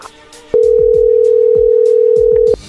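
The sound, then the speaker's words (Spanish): A telephone ringing tone as a number is redialed after the called person hung up: one loud, steady, mid-pitched tone holding for about two seconds, with faint low thumps underneath and no voices. “Colgó Choco. Márquenle otra vez.”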